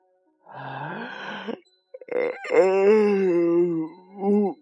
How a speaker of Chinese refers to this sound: 灰兔打了一个长长的哈欠